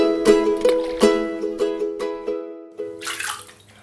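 Running water splashes and gurgles with a steady ringing tone and repeated sharp splashy hits. Near the end it gives way to a brief burst of bright, hissing flow.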